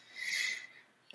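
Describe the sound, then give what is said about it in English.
A dog plays with her toy in the background, making a soft, drawn-out scraping and rubbing noise that fades, then a brief quiet scuffle at the end. No one speaks. “You can hear my dog obviously playing with her toy in the background”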